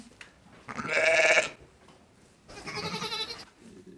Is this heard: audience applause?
no